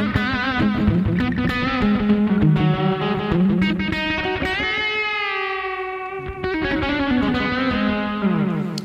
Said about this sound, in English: Okay, so yeah, I did turn the uh, delay time back, and it's uh, like you said, a slap echo.